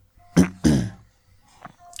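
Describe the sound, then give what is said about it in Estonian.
A soft throat-clearing cough in two quick bursts, the second slightly longer and rougher, followed by a brief faint breathy rustle and near-silence. “… köhatab vaikselt”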